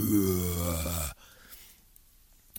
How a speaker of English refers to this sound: But first, if you hear this, um, it's a howler monkey, which is quite likely because I just heard one before I started recording this. Um, they're called howler monkeys for a good reason. They honestly do sound like that.